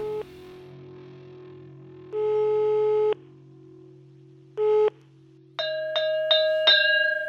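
A telephone ringback tone sounds in a few separated bursts over a steady low line hum as someone places a call, followed by a quick run of bright beeping chirps as the call connects.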